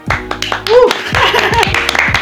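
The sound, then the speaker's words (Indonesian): A few people clap for the listeners in a quick, uneven burst for about two seconds, sharp slaps overlapping while voices cheer and chatter over the clapping. “Jadi yang ngedengerin sampai akhir nih kita kasih tepuk tangan.”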